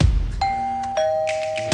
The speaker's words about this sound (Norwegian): Å, det ringer på. Det ringer på.